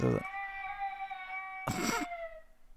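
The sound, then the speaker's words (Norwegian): A sleeping baby girl whimpers and cries softly, a drawn-out, high, wavering wail with a short louder sob breaking in near the end. It's fairly quiet, with no talking. “Hun sover, sover, skjønner du.”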